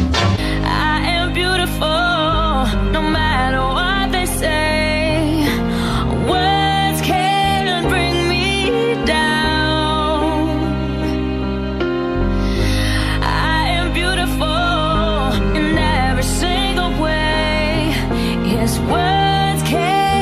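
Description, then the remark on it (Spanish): A slow pop ballad with a female singer carrying a sustained, expressive melody over steady piano and backing instruments, playing loud and continuous throughout without any talking. “Esta que estamos escuchando es una gran canción con una gran voz”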